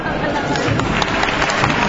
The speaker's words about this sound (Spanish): Y la iglesia de San Alfonso aplaude el que ha sido sin duda una jornada de sabor cofrade indefinible, indiscutible e indescriptible